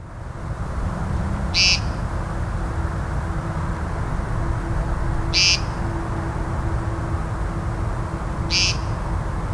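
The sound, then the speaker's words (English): Three short, buzzy, nasal peent calls of an American woodcock ring out a few seconds apart, each a brief high-pitched note over a steady low rumble of background noise. “If you live somewhere in eastern North America near open meadows and woodland, this peent, this peent call may sound very familiar. It is the call of the American woodcock.”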